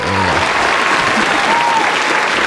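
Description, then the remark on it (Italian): Loud, dense applause from a large crowd fills the whole stretch, a steady wash of clapping with brief murmurs of voices mixed in. “Perciò, applausi sì, eh, infatti applausoni”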